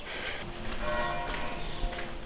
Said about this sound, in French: Les cloches sonnent alors que j'arrive devant le réel Monastère de Las Huelgas, construit à la demande du roi Alphonse VIII en 1187 pour des moniales de l'ordre cistercien.